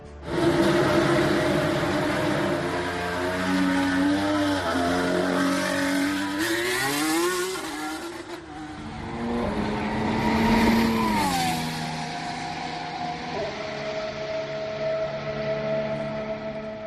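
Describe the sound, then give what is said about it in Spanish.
A Renault Formula 1 car engine revs loudly, its high whining pitch climbing and dropping through several sweeps before settling into a steady roar, with no voices. “que es el jefe de motores de Renault, que insiste que han mejorado sobre todo la fiabilidad del coche, algo de potencia, después lo analizaremos más, pero bueno, el coche es realmente espectacular, es bonito y suena así.”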